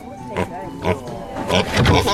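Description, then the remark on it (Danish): A small dark trained circus pig in a box grunts in a handful of short, rough bursts, the last few coming quicker and louder, with brief squealing edges between quiet gaps. “Det består kun af ham selv og en lille mørk gris i en kasse.”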